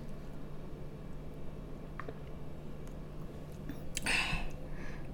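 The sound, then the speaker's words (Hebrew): A quiet sip of water: a faint click, then a brief wet slurp with a soft swallow, set against a steady low hum and no talking. “ונכון, אתם צודקים, אני לוגמת מים עם הלוברה.”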